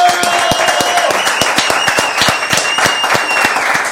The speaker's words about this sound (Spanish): Bueno, aplausos a los dos. ¡Gracias!